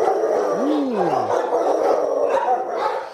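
Dogs bark and howl together in a noisy, echoing animal shelter, with one clear rising-then-falling howl standing out near the start over a steady din of overlapping barks.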